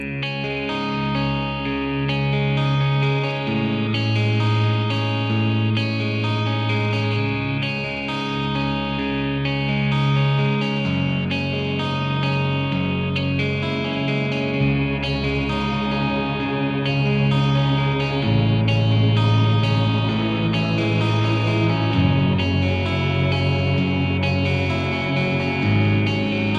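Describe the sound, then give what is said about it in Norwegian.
The end credits music of the video game Duke Nukem Forever plays steadily and loudly, a dense, distorted rock-style track with heavy sustained bass notes shifting every few seconds under bright, echoing layers, with no talking. “Vi hører kreditsmusikken til uh, Duke Nukem Forever.”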